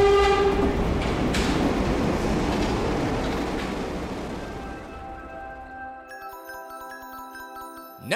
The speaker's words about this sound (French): Mais des lumières jaillirent à l'autre bout du tunnel. Une rame arrivait en sens inverse, droit sur le bus des gares.